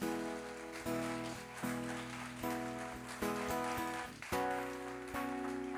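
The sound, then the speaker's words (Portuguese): A crowd claps for Jesus steadily in a dense, continuous patter, while sustained keyboard chords shift underneath every second or so. No one speaks. “Vamos aplaudir Jesus por isso.”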